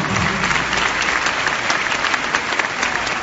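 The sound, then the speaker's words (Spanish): Steady, dense applause from an audience for a champion fills the whole stretch, many hands clapping at once in a continuous, fairly loud wash with no voices standing out. “Dame un fuerte aplauso al campeón.”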